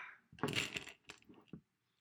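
Someone smashes a bug: a burst of sharp, rattly smacks with a clinking edge, followed by two shorter knocks, then silence. No voices are heard.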